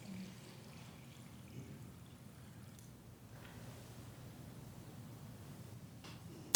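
Water pours steadily and continuously, a soft, even splashing wash with no voices, ending in a brief sharp knock.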